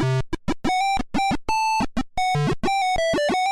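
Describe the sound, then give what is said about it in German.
The Monkey Island video game theme tune played on a PC speaker: harsh, buzzy square-wave beeps forming a quick melody of short separated notes with a few longer held tones, fairly loud and with no voices. “Das Monkey Island Team aus dem PC-Speaker auf jeden Fall hörenswert.”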